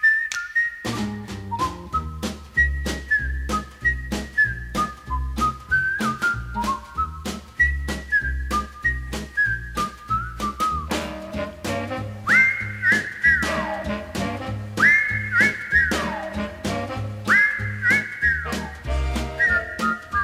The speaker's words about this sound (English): just whistling on his way out of Sunapee.